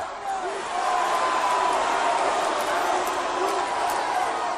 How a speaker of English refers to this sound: Tapped out. That's what this crowd's chanting here.